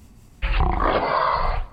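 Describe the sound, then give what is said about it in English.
A single deep, rasping mountain lion growl rumbles loud for just over a second, then cuts off. No one speaks over it. “you getting enough to eat up there in the mountains, mountain lion?”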